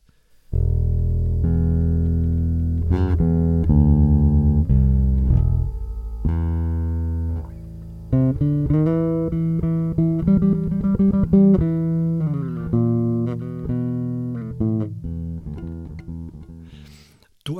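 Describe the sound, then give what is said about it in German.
A sequence of sustained, tonal guitar notes rings out clearly with no voices, the second or third note carrying a rattling, buzzing edge because the string was not pressed down firmly enough. “als Gitarrenprofi hast natürlich gehört, dass, glaube der zweite oder dritte Ton unheimlich gescheppert hat.”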